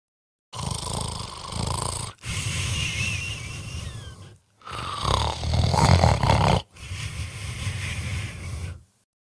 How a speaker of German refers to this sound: Denn obwohl sich Papa umgedreht hat, ist es deutlich zu hören, denn Papa schnarcht, wenn er schläft. Und so klingt es von der Seite drüben nach einem lauten